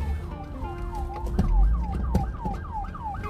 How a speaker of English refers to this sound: And I am in the car, and there is a police car coming, not after me. Um, but uh, uh where's it going? Oh, yep, nope, it's coming by. I'm not moving. I'm pulled over to the side. And there he goes, right by.